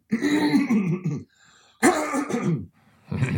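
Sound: throat clearing and coughing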